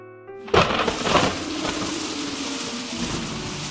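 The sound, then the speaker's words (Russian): A sudden loud thunderclap bursts in after a brief soft tone, then gives way to a steady hiss of heavy rain that continues to the end. “И в это время раздается гром и сверкает молния.”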